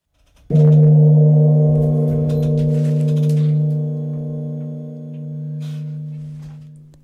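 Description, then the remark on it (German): A single loud gong strike with a sharp onset, followed by a rich, sustained metallic ring that slowly fades over several seconds, heard alone without talking, marking the start of a radio play. “Mit einem Gong beginnt das Spiel und mit einem Gong endet es auch wieder.”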